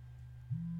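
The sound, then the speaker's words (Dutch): A phone ringing with a steady low electronic tone that jumps slightly higher in pitch about halfway through, then holds; fairly loud, no voices. “Oh, ik doe hem even uit. De telefoon.”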